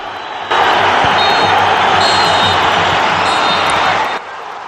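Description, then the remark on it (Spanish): A large football stadium crowd roars steadily at a goal, a dense wash of cheering and shouting that swells in abruptly and holds loud for several seconds before cutting back down, with the faint high whistles of referee Gil Manzano above it. “Se a escuchar los pitidos de Gil Manzano y cómo en la grada se puede escuchar gol o el lamento de que han hecho un gol.”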